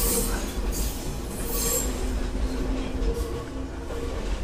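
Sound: passing train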